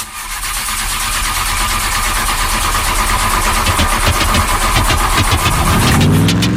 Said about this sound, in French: Bon, t'y arrives, oui ou bien Bah, j'essaye, j'essaye, mais la bagnole veut pas démarrer.